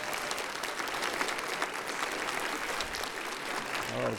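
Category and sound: crowd, round of applause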